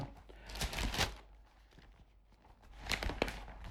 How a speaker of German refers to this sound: Ich muss nur kurz blättern.